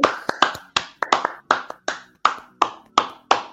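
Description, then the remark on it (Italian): Applause from what sounds like a single pair of hands: about ten sharp, bright claps in a steady, even rhythm, loud and alone with no talking. “quindi un applauso un applauso, dai, ci vuole.”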